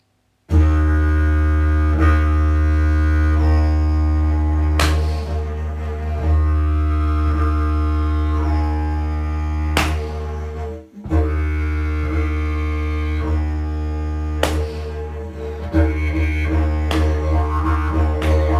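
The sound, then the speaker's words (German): A didgeridoo drones continuously on a deep, steady low note with rich overtones, its tone shifting and pulsing as the player breathes in without breaking the sound. A brief dip occurs near the end. “Ich mache wieder das störende Geräusch, wenn ich atme.”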